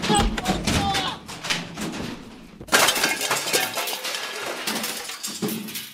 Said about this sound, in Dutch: heb je wel die, die hele ton van hem kapot gemaakt.